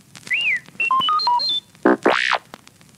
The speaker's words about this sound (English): You can read along with me in your book. You will know it is time to turn the page when you hear R2 D2 beep, like this.